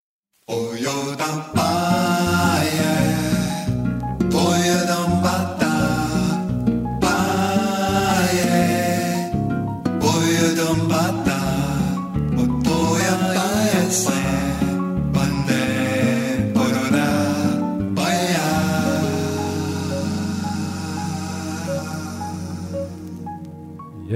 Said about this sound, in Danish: Og så hengiver vi os gerne og henført og dagligt til en god gang Bossa Nova.